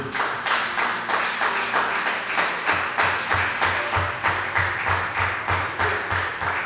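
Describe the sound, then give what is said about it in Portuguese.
An audience at a worship service claps together in a steady, fast rhythm, applauding the name of Jesus, loud, with dull low thumps beating along under the claps and no talking. “Vamos aplaudir o nome dele.”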